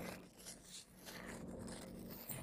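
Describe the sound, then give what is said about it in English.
A burrito wrapper crinkles and rustles as someone bites into a burrito, a steady run of crisp crackling and scraping lasting a couple of seconds with no one talking. “You can hear the wrapper just a wrapping.”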